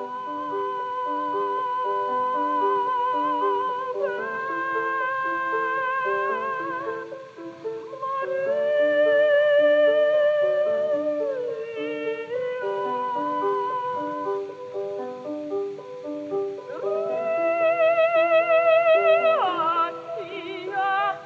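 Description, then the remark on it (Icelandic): An old recording of a castrato singing long, sustained high notes in a slow melodic line over a steady accompaniment, continuous and fairly loud throughout with no speaking. “við vorum að hlusta á geldingasöng núna”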